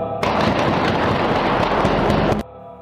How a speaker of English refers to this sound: On the morning of August 1, 1966, shots ring out from the observation deck of the clock tower on the University of Texas campus. It marks the infamous beginning of the modern era of mass shootings in America.